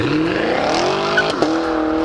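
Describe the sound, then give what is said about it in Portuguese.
A car engine revs up hard and climbs in pitch, shifts briefly, then pulls again, with a hint of tire squeal; loud, no voices. “Vira a chave e vambora acelerar!”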